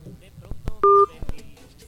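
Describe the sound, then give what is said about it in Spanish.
A single loud telephone touch-tone beep lasting about a quarter second, set among faint background murmuring and a few sharp clicks, as a prank call to a clown in Phoenix fails to connect. “No entra. No contesta. No entra, no se oye, ¿qué pasa?”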